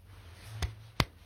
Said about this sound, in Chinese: 我现在在拍手